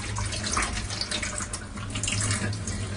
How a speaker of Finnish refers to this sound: Sitten kaavetaan tää vesi tästä. Sen kannen läpi pääsee hyvin.